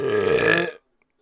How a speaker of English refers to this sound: oh, did I record that? Yeah, I did. I thought I paused it. I just dropped a burp right into the microphone.